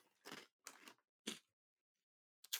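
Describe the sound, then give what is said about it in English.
Crisp crunching as someone bites and chews a very hard tack cracker: four dry, crackly bursts with short pauses between them, and a longer gap before the last crunch. No voices. “very crunchy. I can hear. These uh, tack crackers are they're really hard.”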